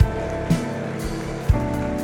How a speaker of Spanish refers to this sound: Oh, no, no, dale el aplauso fuerte, fuerte, fuerte, fuerte.